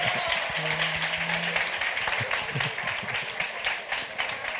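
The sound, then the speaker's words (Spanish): Half-hearted audience applause: a steady, even patter of many hands clapping at moderate loudness through the whole stretch, without swelling or cheering, and a short low hum early on. “Esos aplausos como a medias me parecen no, No, no, aplaudir, aplaudir, aplaudir.”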